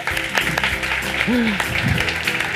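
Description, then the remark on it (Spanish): An audience applauds steadily in a dense, even wash of clapping for the work of the event's interpreters. A brief rising-and-falling voice or whistle cuts through midway. “tenemos que prestar especial atención a la labor de, eh, de nuestros intérpretes maravillosos, a los que pido un aplauso, por favor, para su labor.”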